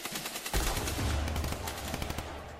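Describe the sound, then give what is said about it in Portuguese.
Rapid bursts of gunfire crackle continuously at around three in the morning, with dense repeated shots and heavy low booms, loud throughout with no voices. “Ainda meio adormecido, Geraldino nem imagina que aqueles barulhos possam ser tiros.”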